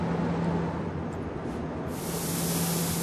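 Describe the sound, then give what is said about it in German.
Continuous hiss of a spray gun applying a primer coat to a sign box, steady, with a low motor hum underneath; the spray grows brighter and sharper toward the end. No voices. “sprüht eine Grundierungsschicht auf den Kasten, später kommt der Lack drauf in der jeweiligen Farbe, die der Kunde sich wünscht.”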